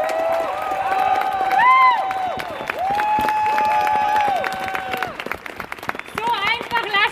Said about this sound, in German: Heute haben sich mutige, tapfere, entschlossene Menschen auf der Baustelle angekettet, um zu zeigen, so einfach gehen wir nicht weg. Applaus für diese Menschen!